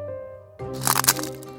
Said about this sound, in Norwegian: Hva var det? Det var lyden av lesekoden som knakk.